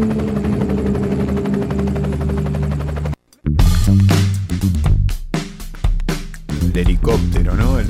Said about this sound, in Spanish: sonido del helicóptero se volvió un sonido muy característico, ¿no?